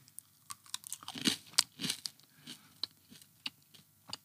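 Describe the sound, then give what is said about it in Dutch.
A crisp crunch as an edible cricket is bitten, followed by a run of irregular crunchy chewing sounds, loud, with no talking. “Eh, Oké, dan ga ik eh, een hapje nemen.”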